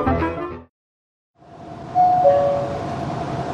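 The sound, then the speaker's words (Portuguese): A brief lull gives way to the steady low rumble of a metro car's interior, the train stopped due to a fault, with a two-tone electronic chime ringing out partway through. No one speaks. “Paramos devido a uma falha neste trem.”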